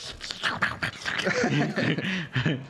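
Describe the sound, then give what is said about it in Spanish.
A dog barks in a rapid series of sharp, fairly loud yaps, with more barking mixed under people talking through the rest of the moment. “pinche perro, güey.”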